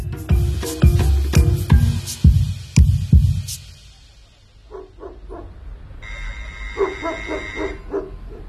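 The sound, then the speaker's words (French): Several dogs at the gate of a wealthy family's property bark loudly in a rapid burst of sharp woofs, then fainter, higher-pitched barking and yips continue after a brief lull. “Vous pouvez ouvrir la porte et dire à vos chiens de se taire.”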